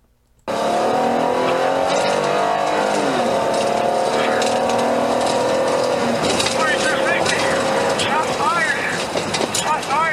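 A car engine roars loudly as the vehicle speeds off, tires squealing and skidding in sharp bursts over the steady engine drone, intense throughout.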